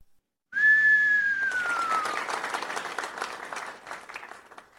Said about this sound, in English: Giving y'all a big cheer.